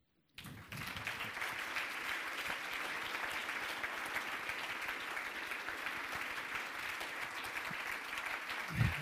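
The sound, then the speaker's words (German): Sustained audience applause for an honoured visual artist whose awards have just been listed: a dense wash of many hands clapping that starts abruptly and holds steady and fairly loud for the full length without anyone speaking. “Lieber Erwin, das ist dein Applaus.”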